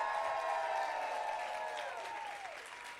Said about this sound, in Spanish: Dale un aplauso fuerte al Señor. Todos los que son de casa, dale un aplauso fuerte al Señor. Si tú estás feliz del lugar donde Dios te plantó, dale un grito de victoria.